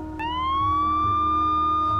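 An ambulance siren wails loudly at a family house with red brick cladding: a single sustained, high-pitched tone that sweeps slightly upward and then holds steady, heard after a short click, with a low rumble underneath and no talking.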